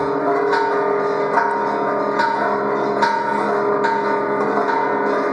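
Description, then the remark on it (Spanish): Church bells ring continuously after the Grito cry is given, struck in a steady rhythm about once a second, their rich overlapping tones sustaining loudly throughout with no voices heard. “Dicen que después que dio el grito sonaron las campanas.”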